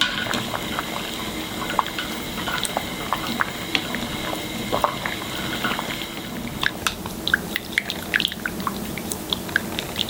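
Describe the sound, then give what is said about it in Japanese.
A pot of saury fish ball soup (tsumire-jiru) simmering in the morning, with a steady bubbling bed of liquid and frequent small pops and clicks that grow busier toward the end; no voices. “今朝は秋の味覚サンマのつみれ汁のいい音”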